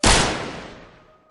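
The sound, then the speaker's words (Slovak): A single loud gunshot cracks out, the bullet boring into a wall just beside a man's head. Its sharp blast rings off into a reverberant tail that fades over about a second, with no voices. “Náboj sa zavrtal do steny iba kúsok od mojej hlavy.”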